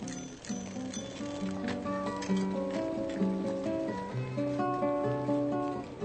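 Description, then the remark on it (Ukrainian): A busy street or square scene: overlapping car horns and bicycle bells drift over a steady bed of clip-clopping and footsteps, continuous and moderately loud throughout, with no clear speech. “За окремими звуками, шумами, гудками автомобілів, велосипедними дзвінками, кроками, ви здогадалися, що ця сцена відбувається на якійсь вулиці або площі.”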